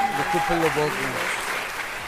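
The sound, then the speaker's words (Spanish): A crowd applauds with dense, steady clapping that holds at an even level for about two seconds, while a voice briefly sounds over it at the start. “A todas las personas que nos pusieron en sus su más escuchados en Spotify, un gran aplauso para todos esos seres humanos, por favor.”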